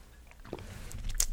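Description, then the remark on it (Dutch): A quiet sip of coffee: soft wet mouth and lip sounds with a brief slurp near the end, no talking. “Ik neem even een slokje van mijn koffietje.”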